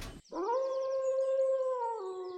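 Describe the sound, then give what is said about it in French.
A single long wolf howl rises quickly, then holds a steady sustained tone for about two seconds before dipping slightly at the end, loud and clear with no voices. “Attention au loup.”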